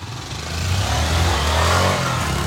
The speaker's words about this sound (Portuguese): e parece ser bem barulhento, né? Quanto mais acelera, mais barulho ele faz. E, e aqui o pessoal, principalmente na BR, gosta de acelerar a moto, faz barulho, né?